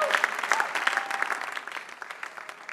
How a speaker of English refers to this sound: Truly, Jesus is Lord. Let's celebrate him again with another clap.